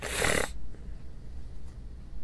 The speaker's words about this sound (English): And you might notice it in my voice. I'm still getting over it. I, I still have uh, some sniffles.